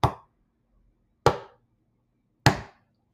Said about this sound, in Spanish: la plaza vacía, con algunos juegos para chicos, donde el único sonido es el sub y baja que golpetea contra el suelo al son del...